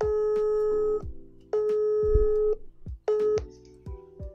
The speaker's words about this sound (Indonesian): Nah, coba kita langsung telepon paling. Boleh, boleh. Coba. Ya. Kita telepon langsung.